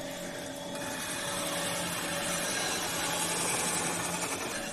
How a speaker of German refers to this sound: So hört es sich an, wenn ein Rotterglas geschliffen wird. Und wir stehen jetzt hier direkt neben dem Mann, der das hier am besten kann, obwohl alle können es toll, aber er kann es wirklich am besten.